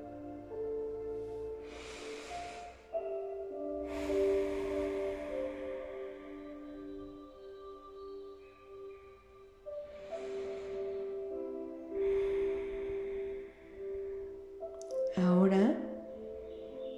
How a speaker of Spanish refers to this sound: Imagínate que se sentiría estar en el cuerpo de una tortuguita. Ves, sientes y escucha cómo es tu respiración despacio y suave.